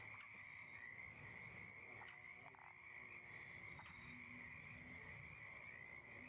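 A dense swamp chorus of croaking frogs at night fills the scene, a continuous buzzing drone with a steady high trill and scattered louder croaks, no voices present.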